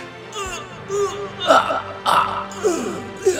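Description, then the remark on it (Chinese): A voice lets out a series of strained, pained groaning cries, several rough voiced bursts rising and falling in pitch over a few seconds, acted out as the story character 超猪力霸王 (Super Pig) in agony while a virus monster's tentacles drain his superpowers. “超猪力霸王发出很痛苦的声音。”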